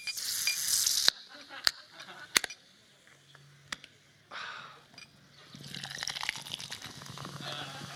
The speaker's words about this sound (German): die Schaumkrone, wie sie plätschert.